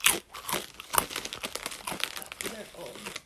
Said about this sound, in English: Oh, it is definitely stale. It's well, I don't know, cause it's crunchy. Maybe it just tastes bad. Maybe it's not stale and it just tastes bad. We're gonna eat a few more.